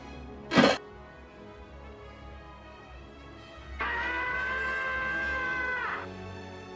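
A short sharp burst, then a few seconds later a sustained, muffled wail of shouting voices that holds steady for about two seconds before fading, as if coming from outside.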